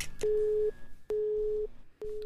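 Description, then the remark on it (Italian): A telephone busy tone after a dropped call: steady mid-pitched beeps, each about half a second long, repeating with short gaps of silence, clear and alone with no voices. “Caduta la linea.”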